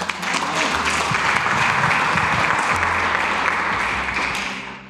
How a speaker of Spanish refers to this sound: Uh, un aplauso por favor a estas personas.